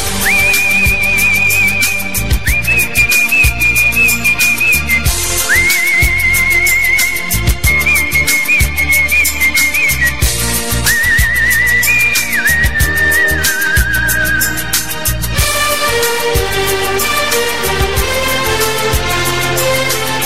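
A Hindi film love song plays loudly, an instrumental passage where a high, gliding whistle-like melody rides over a steady rhythmic backing, swelling into fuller, denser accompaniment near the end.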